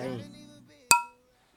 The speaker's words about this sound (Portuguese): Um brinde, pá